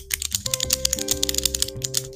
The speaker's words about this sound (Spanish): O con el bolígrafo, tiki tiki tiki tiki. Ay, no tengo un bolígrafo para hacer el ejemplo. A ver, este boli, no, este boli no.